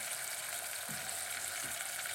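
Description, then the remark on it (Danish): Steady, dense sizzling of vegetables frying in a pan while they still hold water, a constant bright hiss with a couple of soft low knocks like a utensil or pan shifting, no voices. “Det begynder, kan du høre det? Det synger. Det er fordi, der er mere vand.”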